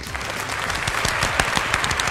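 A burst of applause: many hands clapping in a dense, steady patter with scattered sharper claps standing out, sustained at even loudness throughout, no voices over it.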